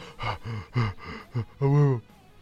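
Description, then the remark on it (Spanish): A voice imitates gasping for air after holding its breath during the underwater part of the KaBlam! cartoon intro: several short, voiced gulps in quick succession, then one longer, drawn-out gasp, fairly loud. “Yo trataba de aguantar la respiración en esa parte siempre. Cuando se sumergía y pasaba y todas esas mamadas y luego salía y yo.”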